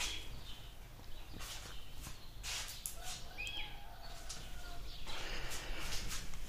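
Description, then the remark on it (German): Faint birds sing and chirp outdoors outside an open window, with a few thin whistles drifting over a steady background hiss and occasional soft shuffling noises. “Ich lasse jetzt einfach kurz mal ein bisschen auf, dass ihr die Vögel ein bisschen hört.”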